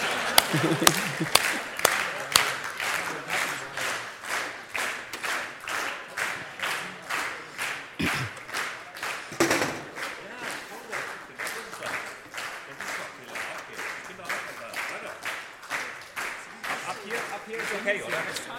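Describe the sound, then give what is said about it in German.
A group of children playing a game clap their hands in a steady, rhythmic beat, about two or three claps a second, continuing for the whole stretch, with faint voices mixed underneath. “die Fische im Polarmeer dürfen natürlich mit den Flossen klatschen, ja.”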